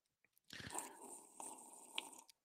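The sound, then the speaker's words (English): A loud slurp of a drink, one long wet sucking sound lasting about two seconds with a slight bubbly break midway, and no talking. “All right, can I slurp right now? Yes.”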